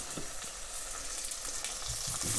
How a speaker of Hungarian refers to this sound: A vaj most felolvadt és forró. Most tesszük bele a banánszeleteket óvatosan, és vigyázunk, hogy le ne fröcsköljön bennünket.